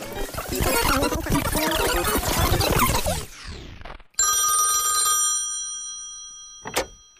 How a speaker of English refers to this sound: Do you remember the last time you had a regular phone call? Without the video on, or? Yeah, not a video call, a phone call, like ring ring, hello, you don't know who's on the other line.